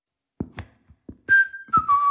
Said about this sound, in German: Was ist der denn für einer? Abführmittel im rote bete und nun geht er pfeifend durchs Haus.